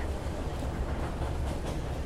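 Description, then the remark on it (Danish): A U6 line subway train in Berlin rumbles steadily along on an October morning at rush hour, its heavy low-frequency drone and faint rattling carrying on without a break. No one speaks. “Ines sidder i undergrundsbanen. Linje U6 i Berlin.”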